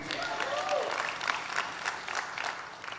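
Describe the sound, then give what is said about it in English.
An audience breaks into steady applause, a dense patter of many hands clapping at once with a few faint voices mixed in, holding at a fairly even level throughout. “You should clap there.”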